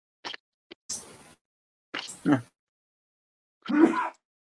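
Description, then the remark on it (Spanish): A series of sneezes: a couple of tiny clicks, then three short, breathy, hissing bursts spaced about a second apart, moderately loud, with no talking. “Salud.”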